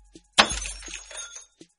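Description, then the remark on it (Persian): Car window glass shatters in one loud, sharp crash, followed by about a second of crackling, tinkling fragments that fade out. A couple of faint clicks come before and after, and no one speaks. “مثلا من خیلی دوست دارم یه پورشه 911 بخرم بندازم سیر پام البته نه که بخوام با پرشه سرعت برم و نه میخوام با تیکه چوب بیفتم به جونش تموم شیشاشو بشکنم و ماشینو داغون کنم”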